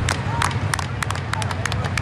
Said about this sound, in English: Got the speed clap going.